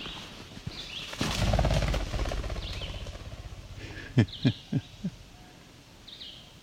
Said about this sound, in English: that was a ruffed grouse. Sitting along the trail, hiding. jumped out.